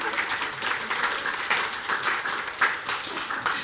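Steady applause from an audience as the guests of a conversation event are introduced, a dense wash of many hands clapping at an even loudness for the full few seconds, with no voices standing out.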